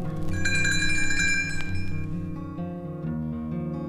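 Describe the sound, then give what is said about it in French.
Bright, tinkling little bells of Tinker Bell, the page-turn cue in a read-along of The Jungle Book, shimmer for about a second and a half over a sustained musical backdrop, then fade while the soft instrumental tones continue alone. “Vous saurez que le moment est venu de tourner la page lorsque vous entendrez la fée clochette. Elle fera teinter ses petites cloches comme ceci.”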